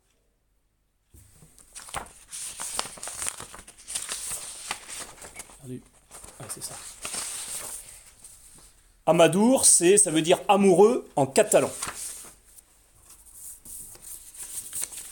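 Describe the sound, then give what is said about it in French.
Several seconds of dry rustling and crinkling as paper sheets are shuffled and flipped, followed by a man speaking briefly near the end. “Je perdu dans mes feuilles.”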